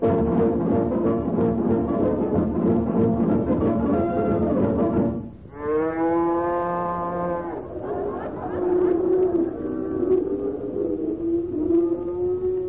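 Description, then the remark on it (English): Cows moo over a busy, steady background din: one long, strained, harmonic bellow stands out midway, followed by lower, drawn-out lowing toward the end. “Wonderful looking bunch of cows, isn't it”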